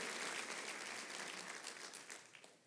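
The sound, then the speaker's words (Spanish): An audience applauding the King of Kings together, a dense steady wash of many hands clapping that holds strong and then gradually thins and fades toward the end, with no speech over it. “Aplaudo al Rey de Reyes.”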